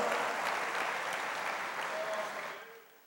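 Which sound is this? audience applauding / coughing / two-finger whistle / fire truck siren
audience applauding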